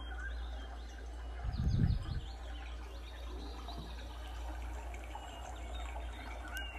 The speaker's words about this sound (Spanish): esos sonidos de los pájaros, de los animales.